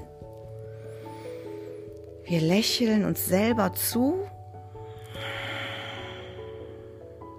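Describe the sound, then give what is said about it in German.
A short spoken phrase is followed by a long, soft, breathy rush of air, a slow deep breath taken as a breathing exercise, with a low steady drone humming underneath throughout. “Also wir atmen tief ein.”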